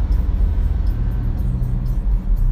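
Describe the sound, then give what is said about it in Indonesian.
A loud, rumbling bus engine roars steadily, its low, rough growl dominating throughout with a ragged, sputtering edge from a broken exhaust. “di bis berisik banget knalpotnya jebol kali ya”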